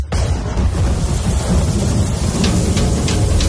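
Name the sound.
rain and thunder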